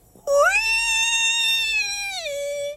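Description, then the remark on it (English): A single squeaky clarinet note, loud, scoops upward at the start, holds steady for about two seconds, then sags slightly in pitch before ending. No other sounds accompany it. “Listening carefully to the teacher's words and sounds, she quickly made a sound on her clarinet. She heard the beauty through the squeak”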